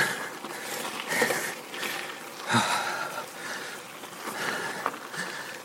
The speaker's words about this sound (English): So, oh, I hope y'all like heavy breathing.